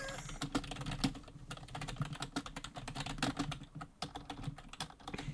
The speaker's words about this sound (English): if you hear my keyboard clicking in the recording, I apologize.